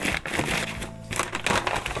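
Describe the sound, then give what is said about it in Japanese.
Continuous crinkling and rustling of paper wrapping being folded around a tea cake, as the tea is put back into its paper package and wrapped in paper, with busy crackles and a brief quieter pause midway before the crumpling resumes. “ではこれをこの紙のパッケージの中に戻しましてそして紙で包んで”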